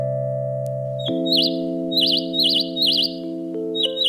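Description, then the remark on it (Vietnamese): Bright, quick bird chirps repeat in a steady series of about five, ringing clearly over a soft, sustained musical drone. No one speaks. “Bạn đã bao giờ thấy vui khi nghe tiếng chim hót chưa?”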